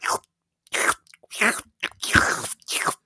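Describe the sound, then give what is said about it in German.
A voice imitates crunchy ASMR-style chewing in front of the mic: six or so short, crisp bursts of crunching in an uneven rhythm, separated by brief silences, with no ordinary speech. “hier, wie nennt man dieses Geräuscheding? ASMR.”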